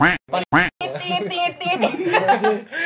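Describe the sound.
Three quick nasal duck quacks, used as a censor bleep, burst out loud and together, then stop abruptly as several people's voices pick up in lively conversation.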